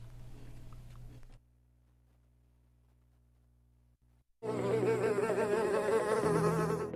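Flies buzz loudly, a dense droning hum with wavering pitch, first briefly, then after a near-silent pause with a low hum, returning louder and sustained.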